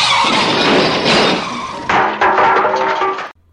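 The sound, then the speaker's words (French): A car skids loudly with tires squealing in a harsh, continuous screech lasting a few seconds, shifting partway through before cutting off abruptly. No voices are heard. “Je sais que vous avez eu un accident de voiture, mais je crois que je suis aussi choqué que vous.”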